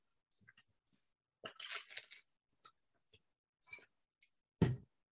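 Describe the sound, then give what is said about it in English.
Quiet wet mouth sounds of someone drinking water during a break: small clicks and squishy sips, then a fuller, louder gulp near the end, with no talking. “Water break. Big gulp of water.”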